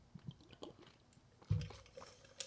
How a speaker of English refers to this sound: Pardon me as I sip my water.